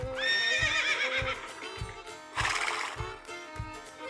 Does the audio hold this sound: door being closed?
no